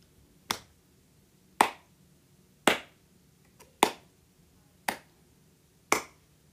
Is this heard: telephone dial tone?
no